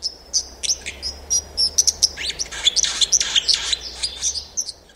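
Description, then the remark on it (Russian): A white-throated dipper sings a rapid, jumbled stream of high, thin trills and sharp chirps, bright, over a steady low rushing background like running water. “И я говорил вам, что эта птица бегает ногами по дну ручья, и вы могли тут же догадаться, что речь идет про аляпку.”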